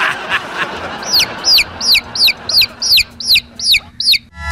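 A chicken clucks in a quick, steady series of about nine sharp, high calls, fairly loud, with a low background hum and no one talking, in a radio commercial for Pollito Income Tax, a tax filing service.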